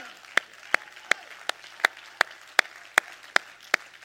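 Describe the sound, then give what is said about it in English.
An audience claps hands in steady unison in the morning, about eleven sharp, evenly spaced claps at a brisk rhythm, ringing out with reverberation over a faint murmur of background noise. “Everybody, clap your hands here this morning.”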